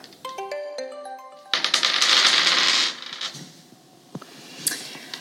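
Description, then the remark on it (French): A short bright chiming jingle gives way to a loud clattering rattle of dice being shaken and rolled for about a second in a dice-throwing game, followed by a few scattered clicks as they settle. “Est-ce que tu acceptes de jouer au jeu du lancer de dés avec moi ce matin”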